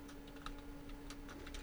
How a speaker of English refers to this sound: If you hear tapping in the background, I'm terribly sorry. I'm just finishing up a message to Chris.